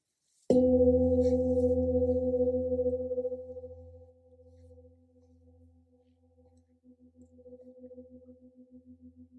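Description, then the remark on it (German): A single gong is struck once, the third gong, producing a sharp onset followed by a long, resonant hum with steady tonal layers that slowly fade and waver, ringing on alone without any voices. “Und mit dem dritten Gong reck und strecke ich mich liebevoll.”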